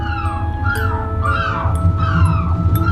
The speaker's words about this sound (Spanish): Maldita gaviota.